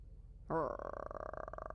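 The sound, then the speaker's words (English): A person tries to imitate an animal snarl with the voice, but it comes out as a growl: a sudden, rough, buzzing rumble that starts after a short quiet moment and holds steadily for about a second, fairly loud. “No, that's like a growl.”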